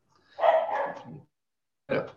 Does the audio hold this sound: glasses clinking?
no